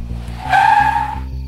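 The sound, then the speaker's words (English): A car pulls up on a street at night, its tires squealing sharply in a short skid over a low engine rumble, loud, the screech rising and fading within about a second. “Then a car pulled up.”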